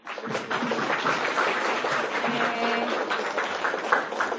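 An audience applauds to welcome a Michelin chef, a graduate of The Culinary Institute of America, to give a lecture, in a dense, steady wash of clapping that lasts about four seconds at an even loudness, with faint murmuring voices mixed underneath.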